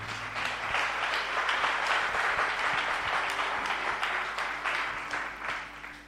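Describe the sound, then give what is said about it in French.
A large crowd applauds steadily with dense, sustained clapping and some cheering mixed in, at a fairly loud, even level throughout, acclaiming Jesus at a preaching event. “Je veux qu'on acclame Jésus très fort.”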